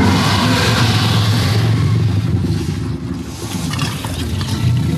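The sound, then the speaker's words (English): A deep, rumbling bestial monster roar blares loudly and continuously for several seconds, a thick, angry-sounding growling wall of sound with no talking over it. “Lets out a mighty bestial roar.”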